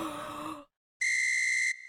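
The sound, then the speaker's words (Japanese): A voice does a short, breathy imitation of Kimura Takuya's yawn, a groaning sigh that fades out. After a brief silence comes a steady, loud, high whistle-like tone. “木村拓哉のあくびはどんなあくびだろう”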